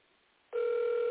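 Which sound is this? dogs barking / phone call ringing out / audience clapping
phone call ringing out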